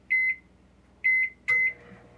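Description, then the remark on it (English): A microwave oven on a boat starts up to heat coffee: two bright keypad beeps, then a third beep with a sharp click, followed by the low, steady hum of the oven running, with no talking. “You can hear I'm starting the microwave to heat up my coffee.”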